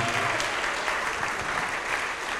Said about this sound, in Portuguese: Vamos aplaudir mais ao nome de Jesus que está chegando mais gente.